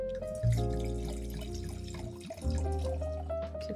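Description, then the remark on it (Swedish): Liquid is poured steadily into a glass, a gurgling stream whose ringing tone climbs in pitch as it fills, with a brief break midway before the pour continues. No one speaks. “Ja, varsågod att eh, pour it up, mm.”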